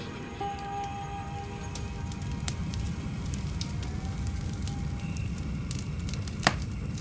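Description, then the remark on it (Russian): A piece of styrofoam from the packaging of a large refrigerator crunching and creaking, with scattered crackles, sharp clicks and thin squeaky tones over a steady low rumble. No one speaks. “Ложись вот здесь, на пенопласте. Такой кусок нашел, это сейчас слышишь?”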